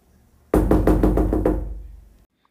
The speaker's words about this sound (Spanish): Barbazul levantó el cuchillo y en ese momento llamaron tan fuerte a la puerta que Barbazul se detuvo bruscamente.